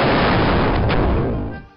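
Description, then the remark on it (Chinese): A loud explosion sound effect: a dense, roaring blast of rumbling noise that holds for over a second before quickly fading out, with no voices. “别人看到你冲出天的牛气，以为原子弹爆炸了呢。”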